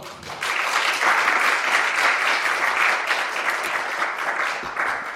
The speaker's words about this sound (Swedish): Eh, jag tycker vi ger honom en applåd.